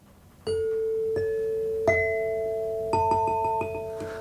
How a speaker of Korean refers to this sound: 네, 부드럽고 다정한 딩동댕 소리 들려드렸고요.